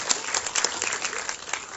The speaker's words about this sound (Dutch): Zullen we God een applaus geven voor zijn geweldige plan?